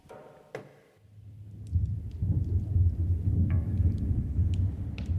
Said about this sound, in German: Man, you know, I wonder if this rain will ever stop again.